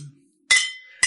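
Two bright glass clinks about half a second apart, each ringing out briefly, as glasses are touched together in a toast. Fairly loud, with no talking.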